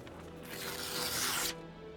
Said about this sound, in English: The prosecutor tore open the brown paper package. Inside were 14 pieces of silver cutlery